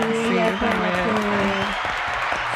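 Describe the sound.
A crowd claps in steady, dense applause that holds at an even loudness throughout, with voices calling out over it during the first part.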